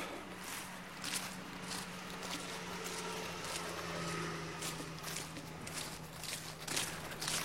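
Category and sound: human body sound, footsteps walking outdoors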